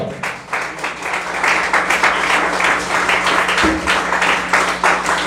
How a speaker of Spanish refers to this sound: De la ofrenda de palmas al Señor.